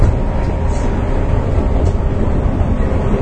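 A steady, loud rumble of a JR 415 series electric train running on the Nippō Line between Kokura and Nakatsu, Japan, heard from inside the carriage, with dense low-frequency roar and rattling that continues without pause and no voices.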